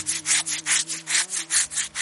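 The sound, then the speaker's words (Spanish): Someone scratching their back: rough, rhythmic scratching, like scraping with a stiff object, with about eight quick, harsh strokes in a steady back-and-forth beat, a faint low hum underneath and no voices. “Ah, nada, rascándome las espalda.”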